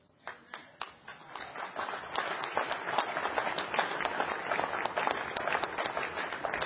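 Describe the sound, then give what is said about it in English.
Audience clapping begins with a few scattered, distinct claps, then quickly swells into steady, dense applause from many hands that holds at a moderate level to the end. “I was the first one to clap on that, so we can note that too.”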